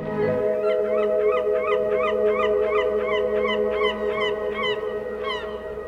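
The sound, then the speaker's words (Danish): A gull, one of those that land on the rooftops outside the window in a city, gives a rapid run of about a dozen sharp, rising-and-falling cries in steady rhythm, fairly loud, over a continuous low tonal drone, with no one talking. “Mågerne, der lander her på tagene uden for vinduet en gang imellem, de hørte engang naturligt til her i byen – men de er efterhånden jagtet vildt af byboerne, fordi de skriger og skider ud over”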